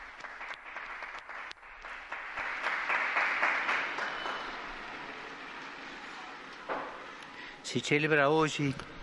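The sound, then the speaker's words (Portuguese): A large crowd, waving flags from countries including Brazil, Portugal, Israel and Poland, applauds outdoors for the newly canonized Argentine saint Maria Antônia da Paz Figueroa: a dense wash of clapping that swells and then fades, with an amplified voice briefly speaking over the end. “Um aplauso à nova santa.”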